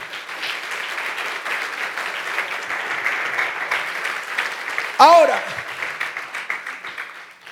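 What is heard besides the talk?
audience applauding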